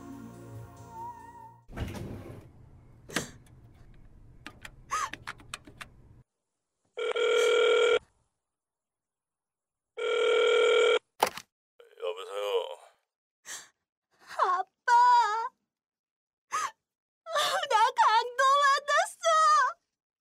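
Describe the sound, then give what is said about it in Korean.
Clicks and handling noises at a public payphone give way to two separate bursts of a telephone ringing as a collect call is placed to a father, each about a second long, clear and steady, followed by a brief, indistinct voice. “미친 듯이 공중전화로 들어가 콜렉트콜로 아빠에게 전화를 걸었습니다.”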